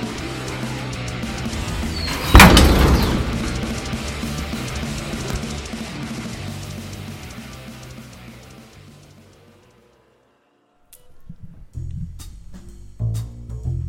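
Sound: door being shut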